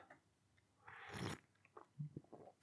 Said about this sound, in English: But anyway, um, I've got myself uh, my cup of tea here. Let me just have a quick sip of this.